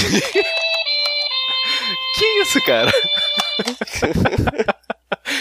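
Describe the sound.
A horn blares a steady, buzzy tone for about three seconds, stepping slightly in pitch, while people talk and laugh over it; the talking carries on after the horn cuts off.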